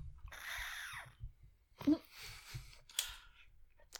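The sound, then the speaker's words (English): A squeaky, screeching sound from a water bottle as someone drinks, with curving high-pitched squeals and sucking noises, followed by a few short clicks and scrapes. “I'm drinking out of my water bottle that makes a funny, like, screeching noise.”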